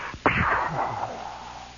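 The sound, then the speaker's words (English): A voice mimics an artillery shot from a big artillery battalion firing behind the woods in the foothills of the Ozarks: a sharp, explosive burst followed by a long, decaying whoosh that trails off like an echo from the hills, all within a couple of seconds. “they fire another one and you can see the smoke rising, and once again you hear it echoing from the hills.”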